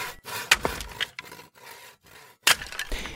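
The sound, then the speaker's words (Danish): Firewood being chopped on a farm with no electricity: two sharp, loud cracking chops, separated by stretches of rough scraping and rubbing, with splintering noises after each strike. No one speaks. “Nå, men udover at hjælpe til med køerne, ja, så skal du altså også hjælpe til med at save og hugge brænde hver eneste dag.”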